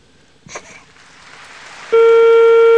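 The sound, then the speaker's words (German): A soft click and faint room noise, then a loud, steady telephone dial tone cuts in and holds unbroken to the end, as a caller waits for an outside line to phone Styria (Steiermark), Austria, during a television show. “Aber das Saalpublikum scheint gut drauf zu sein und wenn er jetzt noch ein Amt bekommt,”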